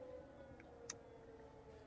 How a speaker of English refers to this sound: Uh, that I'm watching live stream right now of Ukraine, and that's 2:45, and the air raid sirens are going off again.